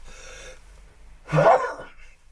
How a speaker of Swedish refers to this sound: måste jag nysa.